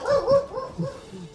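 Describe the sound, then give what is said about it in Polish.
A dog barks in a couple of quick, yappy bursts, slightly muffled, with no one speaking over it. “Słyszycie ujadę psa.”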